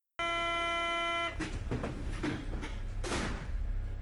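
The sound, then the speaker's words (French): An RER E commuter train at a station at rush hour: a steady, harmonic horn tone sounds for about a second, then doors slide and thud amid loud rumbling platform noise. No voices. “Le RER e à l'heure de pointe avec le téléphone dans ma poche et le visage compressé contre la vitre, c'est bof.”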